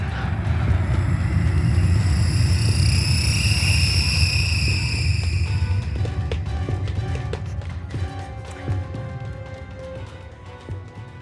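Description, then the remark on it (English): A fighter jet, recorded at an air show, roars loudly during takeoff, a deep rumble layered with high, shrill engine whine. After about six seconds it gives way to quieter scattered tapping and clattering. “with the sound of a fighter jet taking off, which I think I captured at an air show”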